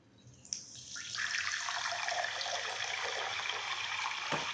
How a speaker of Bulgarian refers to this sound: И това е след това как е излива в чаша вода.